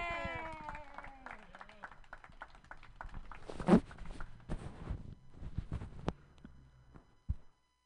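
An audience claps steadily for several seconds, a dense patter of sharp hand claps, with a rising and falling whoop at the start and a loud burst midway before the applause cuts off.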